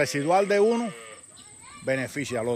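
A cow moos on a farm: one long, wavering call, a brief quiet pause, then two shorter lowing calls in quick succession, with no one talking.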